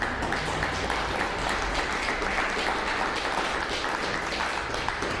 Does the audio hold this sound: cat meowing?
no